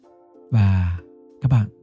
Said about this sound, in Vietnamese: nếu như mà các bạn cảm thấy dối bời á thì các bạn hãy nhắm mắt lại và hít một hơi thật sâu và sau đó các bạn sẽ thở ra từ từ